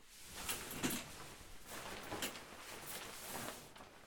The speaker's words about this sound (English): That was the sound of a shower curtain moving.